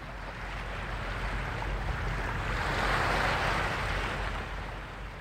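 Steady sea surf on the island of Fehmarn washes in continuously, a broad rushing roar that swells slightly toward the middle, with some low wind rumble and no voices.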